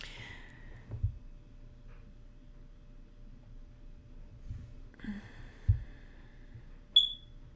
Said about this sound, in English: So if I don't get that beeping fixed, um, I'm sure some of you guys are going to stop listening to me. So I need to fix that. I'm sorry. I will. I promise my next episode it's going to be gone.